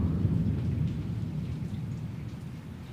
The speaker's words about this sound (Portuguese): Aí, ó, do nada, a chuva parou. Você é louco. ouve os trovões um pouco.